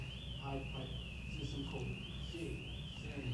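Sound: alarm going off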